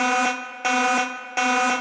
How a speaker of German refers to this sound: Spoiler-Alarm!